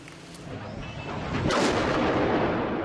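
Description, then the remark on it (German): Heavy gunfire and explosive blasts from bombing in Aleppo, with bombs falling on city neighbourhoods, rumble through a dense, noisy wash of sound, with a sharp burst around the middle followed by sustained loud roaring and crackling. “Das war Aleppo vor fünf Tagen. Die Feuerpause vom Februar war endgültig zusammengebrochen. Bomben auf Viertel, in denen die Rebellen sich eingegraben haben.”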